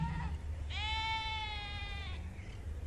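A sheep lets out one long, wavering bleat lasting over a second, clear, with a faint low rumble of background noise before and after.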